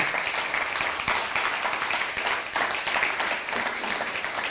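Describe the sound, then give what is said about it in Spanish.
An audience applauds steadily, greeting viewers in Cuba, Puerto Rico and the Dominican Republic during a live YouTube and Facebook broadcast, a dense wash of many hands clapping at a fairly even loudness for several seconds, with no voices standing out. “Estamos eh, eh, transmitiendo a todas las naciones, así que saludamos a todos los a Cuba, a Puerto Rico, a todas las islas de por allá, República Dominicana, un fuerte aplauso.”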